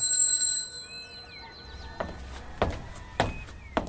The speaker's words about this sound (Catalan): Va fer sonar la campaneta de plata.